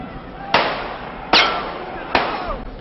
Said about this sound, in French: C'était hier soir vers 21h, en fin de cortège, des gardes mobiles cernés dégainent leurs armes de poing et tirent vers les assaillants. Au moins 5 ou 6 coups de feu éclatent au cœur de la foule.